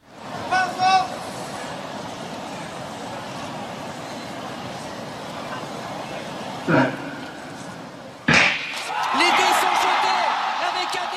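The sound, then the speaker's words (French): A low, steady murmur fills a large stadium in the silence before the start of a 100-metre race, broken by a soft knock, then the sharp bang of the starting gun near the end that sets off a swell of crowd noise. “C'était le silence dans le stade avant le coup de, le coup de feu de départ du 100 mètres.”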